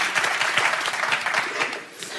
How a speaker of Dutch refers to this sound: Een, groot applaus voor mijn lieftallig assistent